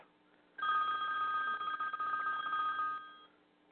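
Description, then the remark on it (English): The speaker's own phone, left switched on, rings with a steady electronic trill for about two and a half seconds, loud, standing alone against a quiet background before cutting off. “whoops, I forgot to turn my phone off.”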